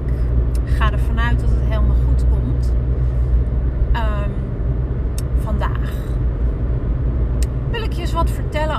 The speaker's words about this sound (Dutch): Dus ik hoop niet dat mijn auto te veel lawaai maakt en eh, dat er te veel ruis is, dat ik eh, moeilijk te verstaan ben.